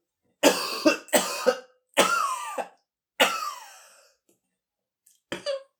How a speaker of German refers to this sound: Achtung, Huster.